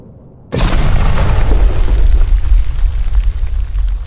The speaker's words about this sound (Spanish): yo a lo lejos escuché el ruido de un avión. Y de repente, una explosión.